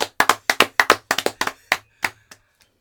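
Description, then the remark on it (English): A short round of hand clapping to celebrate a one-year anniversary: about fifteen sharp, crisp claps in an uneven, slightly overlapping rhythm, fairly loud at first, then thinning out and fading to a last few scattered claps. “we'll we'll clap for that.”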